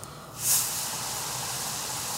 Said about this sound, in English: You know when you get it right, because you can hear the sizzle of the batter just like that. You know, oh, that's when you know it's like really sticking to it pretty well.